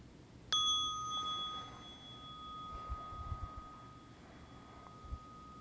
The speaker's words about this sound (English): And by giving ourselves some pause for transition, we can bring our mind and our heart uh, back along so that it's with our body. So I'll just ring the bell to uh, welcome that transition.